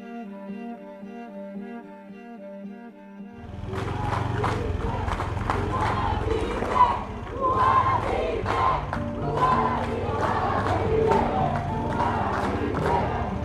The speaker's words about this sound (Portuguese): Estão gritando Luara vive essa mensagem de guerra deles.